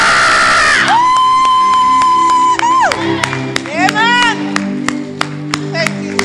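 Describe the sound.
A crowd claps sharply and steadily while voices shout, whoop and let out long sliding cries in praise of God, loud and lively with reverberation.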